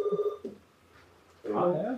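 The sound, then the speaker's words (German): A short electronic telephone tone buzzes at the start, then a quiet pause before voices begin talking in a control room, with internal phone calls and radio traffic from emergency crews outside communicating with the tower and the apron. “Genau, es sind teilweise interne Telefonate, die hier laufen, mhm. ähm, zum Großteil aber auch Funk von den Einsatzkräften, die halt draußen sind und von denen ähm, die Kommunikation mit dem Tower wieder mit dem Vorfeld.”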